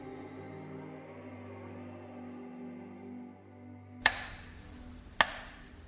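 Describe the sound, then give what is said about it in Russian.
A low, steady droning hum fills the first few seconds, then two sharp, loud metronome ticks sound about a second apart, crisp. The metronome beat of besieged Leningrad, whose fast rhythm warned of an air attack and slow rhythm meant the all-clear. “Стук метронома, тоже стал одним из символов блокадного Ленинграда.”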